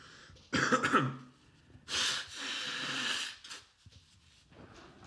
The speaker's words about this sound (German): Okay, ich muss mir nochmal die Nase putzen, sorry.